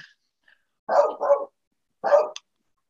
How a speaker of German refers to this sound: Der Hund, ja, es kommen gerade ein paar Pakete, ja.